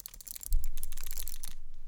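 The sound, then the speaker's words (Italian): Several sharp plastic clicks from a game controller's ZL and ZR trigger buttons, pressed in an irregular series, each crisp and snappy like a computer mouse button, with no talking. “E soprattutto mm, non mi piacciono tanto a differenza del, del New 3DS perché fanno questo rumore.”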